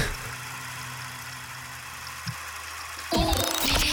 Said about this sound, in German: ich wollte nur mal kurz hupen. Wir wollten noch mal zwischenhupen.